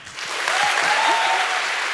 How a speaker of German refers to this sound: nochmal einen ganz herzlichen Dank an dich äh, und nochmal einen ganz kräftigen Applaus, würde ich sagen.